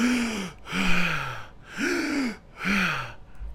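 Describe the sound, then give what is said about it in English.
Four heavy, rhythmic gasping breaths, fairly loud, each one a noisy rush of air with a strained voiced edge, like someone acting out being badly winded after climbing stairs. No words are spoken. “go upstairs and you get to the top and you pretend not to be out of breath, and it turns it, and it turns out it makes you more out of breath to pretend like you're out of breath”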